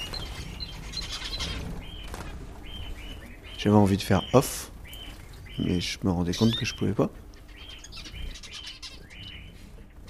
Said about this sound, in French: lever du soleil jusqu'au coucher du soleil, chaque perruche va émettre son petit cri. Euh, s'ils sont une quinzaine, euh, sur une minute, tu vas l'entendre quatre fois ou quelque chose comme ça. Donc t'as toujours un bruit. Et c'est toujours le même.